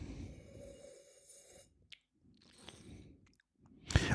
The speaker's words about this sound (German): Also nur so im ersten Moment, wenn man das so schlürft.